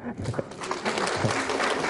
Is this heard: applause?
yes